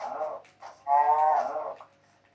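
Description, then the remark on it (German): A cow in a small valley moos: a couple of short grunting lows, then one long, full, drawn-out moo that tapers off. No one speaks. “Hier ist eine Kuh.”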